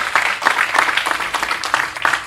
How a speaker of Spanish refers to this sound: Le das aplausos, honor a él.